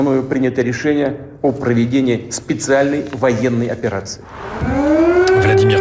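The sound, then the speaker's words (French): People talk for a few seconds, then an air raid siren starts up in Kyiv, Ukraine, on 24 February 2022 as Russia launches its military operation; its loud wail slides upward and settles into a steady, sustained tone that rings out alone. “Les sirènes retentissent à Kiev.”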